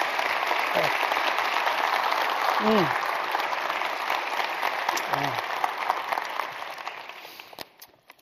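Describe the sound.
Sustained applause from an audience fills the space, a dense wash of clapping that holds steady before tapering off near the end, with a couple of brief vocal murmurs underneath.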